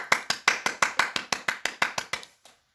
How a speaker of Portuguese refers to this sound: deixa eu te aplaudir aqui.